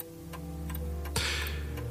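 A wall clock above a dishwasher ticks at a steady, even pace over a low background hum, its ticks crisp, with one brief louder swishing sound partway through.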